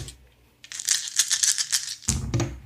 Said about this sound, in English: all right go ahead and add two dice and give me an influence roll so six altogether okay. um give me give me two you can add two more for being a skillful manipulator and your beguiling smile. Nice. So eight dice total.